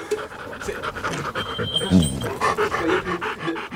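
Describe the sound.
A dog named Mirza pants rapidly and steadily, a quick rhythmic series of breathy huffs that continues throughout, with a voice faintly murmuring in the background.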